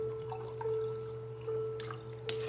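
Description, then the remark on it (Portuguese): Water trickles and splashes into a drinking glass in a few short bursts, moderately quiet, over a steady low electrical hum with no one talking; a person tops the glass up with a little more water. “Separa seu copo com água, deixa eu encher um pouquinho mais o copo, porque eu já bebi.”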